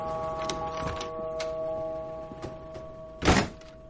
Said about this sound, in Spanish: Pepper cierra la puerta trasera del coche.